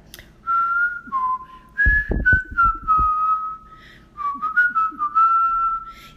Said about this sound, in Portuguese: E lá pela metade do caminho para casa, o urubu começou a assobiar um samba de festa.